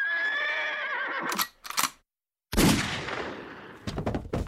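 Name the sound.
horse neighing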